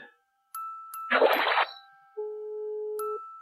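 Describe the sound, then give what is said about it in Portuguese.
A WhatsApp message notification plays: short electronic blips, a quick bubbly pop, then a steady held tone before a final click, with no voices. “Não, esse é o toque do WhatsApp, sabe?”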